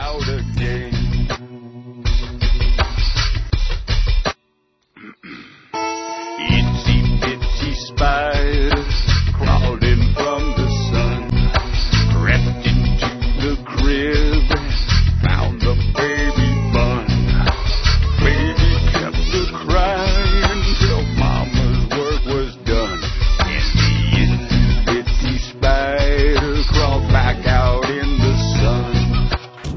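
A full, loud music track plays continuously with dense harmonic layers and a steady beat, briefly dropping out near the start before resuming at full volume.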